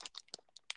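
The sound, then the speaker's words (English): Crinkling of Gushers fruit snack packets, four packs, a handful of sharp, irregular crackles in under a second with short quiet gaps between them, and no one talking. “Also, if you hear any crinkling in the background, I'm not gonna lie.”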